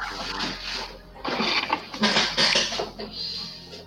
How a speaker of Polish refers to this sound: Garnkami ktoś rzuca.